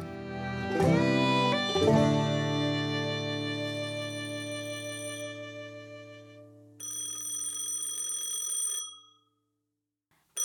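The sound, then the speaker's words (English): A loud electronic phone ring with bright, tonal chimes: a couple of sharp struck notes that ring out and slowly decay, followed by a shorter buzzing burst that cuts off abruptly. “Oh, shoot, my phone.”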